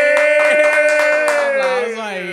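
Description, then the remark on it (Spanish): A quick run of hand claps, around eight, sounds over a loud sustained voice-like tone that drifts lower near the end, the claps partly masked by the tone. “Eh, aplauso, dale. dale,”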